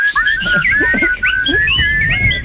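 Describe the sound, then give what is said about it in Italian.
Several people whistle a melody together, their tones wavering and slightly out of sync, with brief gliding notes over a low background murmur. “Facciamolo tutti fischiettando il mio telefono.”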